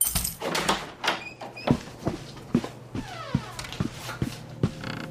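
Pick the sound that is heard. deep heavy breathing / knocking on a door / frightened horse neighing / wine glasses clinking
knocking on a door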